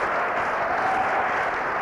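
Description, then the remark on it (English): A crowd applauds two sisters from Huntington Beach for completing the whole thing, many hands clapping together into a dense, even wash of sound with no pauses and no voices standing out. “We give you a clap.”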